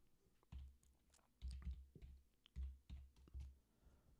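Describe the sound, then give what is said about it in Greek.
Keys clatter on a computer keyboard as someone types a message, in short, uneven bursts of clicks with soft thumps, fairly quiet, with no talking. “Μπα, δεν θα μπω, Κώστα, του γράφω λίγο, παιδιά, sorry.”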